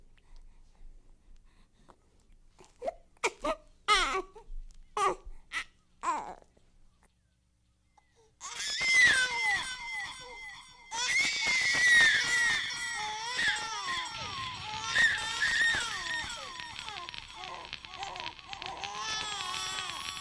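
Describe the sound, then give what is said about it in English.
A baby in a song recording babbles and gives short broken cries, then after a brief silence launches into sustained, high-pitched wailing with gasping breaths, loud and continuous to the end. “So yeah, that fucking baby like sent Dude. me into the multiverse, or I guess like a demonic plane.”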